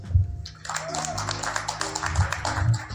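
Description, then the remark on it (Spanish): An audience breaks into applause for a newly named secretary general of the professional wrestlers of Mexico, a dense wash of many hands clapping that swells after a brief lull and stays steady and fairly loud, with a low hum and murmuring underneath. “Fuerte el aplauso.”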